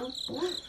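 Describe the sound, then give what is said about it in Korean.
A cricket chirps steadily in a thin, high-pitched trill that runs continuously through the short moment, moderately loud, with a faint low murmur underneath. “이게 바로 귀뚜라미 소리예요.”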